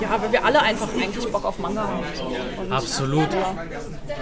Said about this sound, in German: Man hört es im Hintergrund, die Manga-Ecke ist komplett voll.